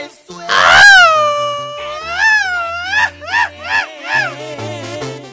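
A man lets out a loud, piercing high-pitched scream on request, one long wavering cry followed by several shorter warbling yelps in quick succession, with a faint low hum underneath.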